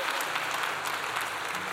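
A crowd claps steadily, a dense, continuous patter of many hands at a fairly even loudness throughout, with no voices rising above it.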